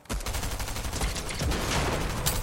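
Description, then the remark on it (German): Rapid, continuous video game gunfire as a player keeps shooting at enemies: a dense stream of sharp, overlapping shots with a steady rattling rhythm, loud throughout and with no voices over it. “Ich schieß rein die ganze Zeit.”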